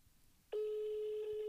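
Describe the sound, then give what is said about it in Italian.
A steady electronic telephone ringback tone of an outgoing call to Pippo Franco starts abruptly after a short quiet stretch and holds at an even pitch, clear, with no one speaking. “Eh, sta squillando, eh, Eh, sta sì.”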